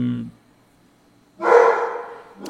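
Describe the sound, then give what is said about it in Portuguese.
A dog named Amendoim lets out a single loud bark after a short pause, following a brief snippet of a voice, with another sound starting right at the end. “É- aquele é o amendoim, ele a pelo ladrar.”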